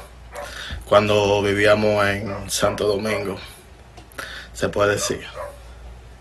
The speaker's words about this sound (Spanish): Eh, disculpen por el perro que está ladrando, que está. Están escuchando ahí, pero.